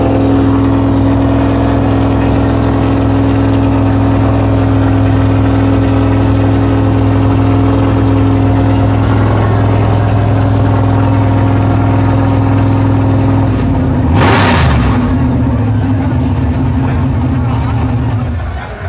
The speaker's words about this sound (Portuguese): Meu, você não faz ideia, o barulho é muito alto aqui de perto. Você tá do lado do carro, é ensurdecedor.